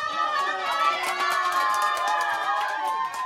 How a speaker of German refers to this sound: Jubel über den Wahlsieg von Satako Kishimoto. Mit 200 Stimmen Vorsprung wurde Kishimoto vor anderthalb Jahren als erste Frau an die Spitze der Stadtverwaltung des Tokioter Bezirks Suginami mit 500.000 Einwohnern gewählt.